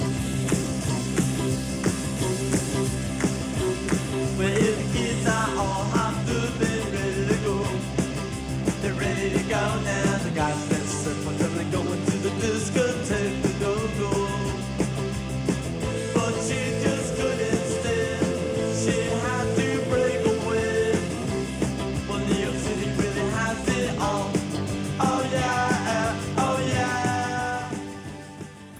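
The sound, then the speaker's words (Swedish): A loud, fast punk rock song plays throughout, with a driving, relentless drum beat under dense distorted guitars and shouted vocals, staying at full energy for the whole stretch. “Som gav eh, punken en rytm.”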